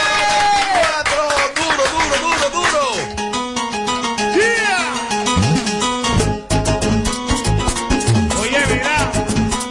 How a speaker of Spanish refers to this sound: Con aplauso despedimos sujeto.